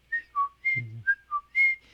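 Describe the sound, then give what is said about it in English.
Someone whistles a two-note interval, alternating a higher and a lower pitch in short clear tones, about six notes in a quick pattern, with a brief low hum overlapping midway. “that's like a certain bird that always knows that the difference between those two notes, that's, you know, there's, there's a certain amount of intervals between those notes, and the bird can recognize that, but the dog can't.”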